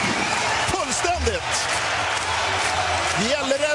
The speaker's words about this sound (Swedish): Center jublar!